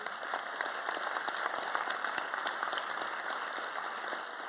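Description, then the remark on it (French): Steady applause from an audience at the Forum des images, clapping for the venue's staff at a 500th show, many hands clapping in a dense, continuous patter at an even level for several seconds, with no one speaking over it. “On peut les applaudir parce que.”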